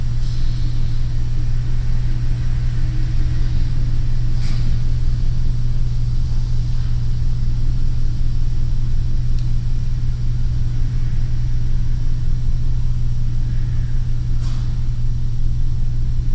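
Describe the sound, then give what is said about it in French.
A steady, muffled low rumble of street traffic heard in a living room through closed double-glazed windows, with faint occasional clicks and no voices. “les sons qui s'échappent de la rue et qui traversent votre double vitrage.”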